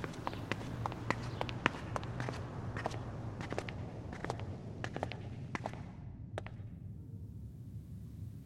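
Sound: footsteps going down stairs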